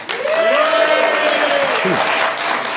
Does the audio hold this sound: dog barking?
no